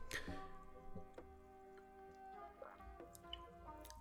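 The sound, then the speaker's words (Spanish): Quiet sipping of water, with a few small wet slurps and swallowing clicks spread over a few seconds against a faint steady background hum. No one speaks. “perdón, voy a tomar un traguito de agua,”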